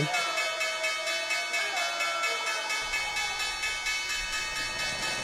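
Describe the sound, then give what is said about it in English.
A loud bell rings out with dense, shimmering metallic overtones that sustain steadily for about five seconds, with no voices; a low rumble joins underneath partway through. “Hit the bell.”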